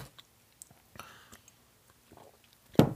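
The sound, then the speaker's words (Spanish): A quiet sip of chamomile tea: a soft slurp, a few small mouth clicks and a louder gulp near the end, with no talking. “Un sorbito de manzanilla, es bueno.”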